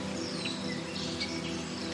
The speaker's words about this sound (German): Ihn umgibt eine saftige grüne Wiese, die mit kleinen Büschen und einzelnen Bäumen gesäumt ist. Von dort aus zwitschern die verschiedensten Vogelarten von morgens bis abends ihr Lied.